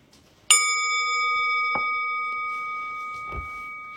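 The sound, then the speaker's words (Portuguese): A single meditation bell is struck once during a compassion (metta) meditation, ringing out clearly with bright, steady overtones that hang in the air and slowly fade, a couple of faint soft knocks in the background. “Eu vou convidar o sino a soar e a gente não precisa se mexer correndo.”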